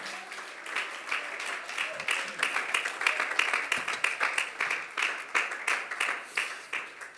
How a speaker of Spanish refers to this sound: Alguien tiene ese deseo hoy que pueda brindarle un aplauso con el corazón al Señor.